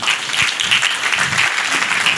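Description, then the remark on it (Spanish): A crowd gives themselves a round of applause after following instructions to raise and lower their hands, clapping steadily for a couple of seconds, a dense, fairly loud wash of many hands with no voices on top. “Ok, dése un aplauso.”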